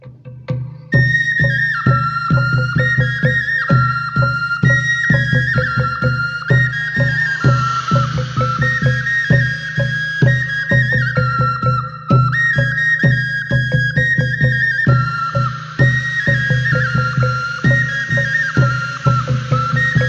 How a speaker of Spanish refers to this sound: que es una música prehispánica que se usaba mucho en los rituales en el Día de Muertos.